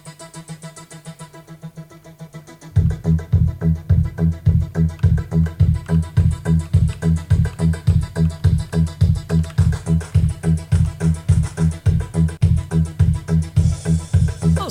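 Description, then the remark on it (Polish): A heavily worn cassette tape plays back: a few seconds of faint murmur, then loud music with a steady pulsing bass beat and a slightly muddy, saturated tone, with no talking. “Jakby no mówię, ta kaseta już jest mocno przechodzona. No tak. I działa.”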